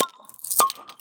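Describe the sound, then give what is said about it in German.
A bottle of naturally cloudy Helles beer is opened right at the microphone: a glassy clink, then one sharp cap-popping burst with a brief ringing tone that trails off. No one speaks. “Ähm, wir machen jetzt alle das Bier auf und trinken dann.”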